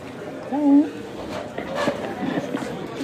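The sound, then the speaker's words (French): A single short dog vocalisation, a bark sliding into a whine, rises briefly over murmuring voices and shuffling noise. “Chien.”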